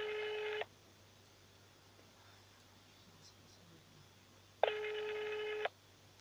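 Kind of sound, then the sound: signal or alarm, telephone number being dialed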